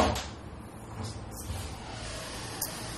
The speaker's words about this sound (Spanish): Pues mira, si escucharon eso fue la gata que llegó de Sandungueal en la, en la calle y ahora entró.